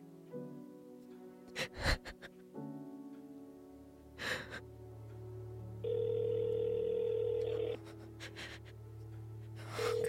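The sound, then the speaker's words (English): A telephone ringing tone sounds once as a steady, fairly loud burst lasting a couple of seconds as a call is placed to a brother, with sharp breaths and gasps before and after it and a low hum underneath. “Tears welled up in my eyes as I punched in his number and clicked call.”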